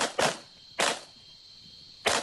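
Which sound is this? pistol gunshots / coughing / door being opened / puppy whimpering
pistol gunshots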